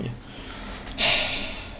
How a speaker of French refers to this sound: Michel, c'est mon chat. Il hein. n'y a pas un mec dans le canapé en train de ronfler.